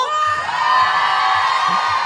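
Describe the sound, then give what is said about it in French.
A loud crowd at a live music show shouts and cheers continuously before the first act, a dense wall of overlapping voices with whoops rising above, sustained throughout. “et pour débuter, précédé de quelques cris que vous entendez sûrement.”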